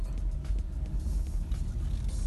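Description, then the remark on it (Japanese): A car drives slowly out of the Oarai Park parking lot in Oarai, heading toward the Marine Tower, with a steady low engine and road rumble, a continuous hum with faint higher hiss and no voices. “というわけで、えー、今から大洗公園の駐車場を出て、えー、大洗の”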